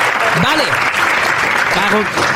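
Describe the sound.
Steady, dense audience applause fills the whole stretch, a continuous crackle of many hands clapping, with a couple of brief voiced calls or shouts rising over it.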